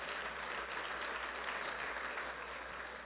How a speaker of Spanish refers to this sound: Denle un fuerte aplauso al Señor por esas personas.